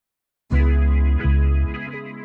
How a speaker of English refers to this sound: That's … influential 1956 song, …